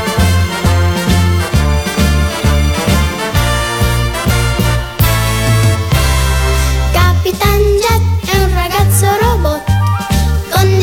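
An upbeat anime theme song from the world of Osamu Tezuka plays loud, driven by a steady pulsing bass line and bright melodic instruments, with a brief shift in the middle before the rhythm picks back up.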